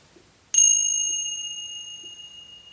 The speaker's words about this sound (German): Und während du ganz ruhig jetzt weiteratmest, hörst du aus der Ferne einen Klang. Hast du den Klang gehört? Hör mal ganz, ganz genau hin. Das ist der Klang einer Zimbel.